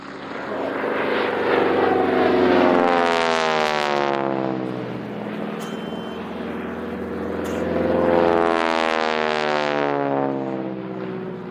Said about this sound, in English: Commandeering a so called Texan, the AT 6, they took flight and patrolled the roads leading into town, intending to report on troop movements. Here's the sound of one of these aircraft taking off.